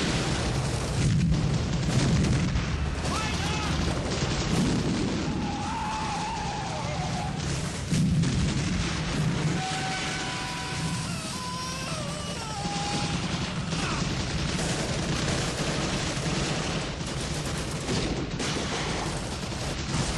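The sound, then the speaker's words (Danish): A dense, chaotic battle soundtrack from the film A Bridge Too Far, showing fighting at the Arnhem bridge as John Frost's forces fight off a German attack. Gunfire and booming explosions, with rumbling low thuds, crackling bursts and whining, wavering tones running steadily throughout without pause. “Det er kamphandlinger ved Arnhembroen, som de tog sig ud i, i filmen A Bridge Too Far.”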